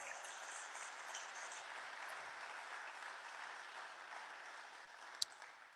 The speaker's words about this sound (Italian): E poi facciamo un altro grande applauso per Carlo Maria Persano.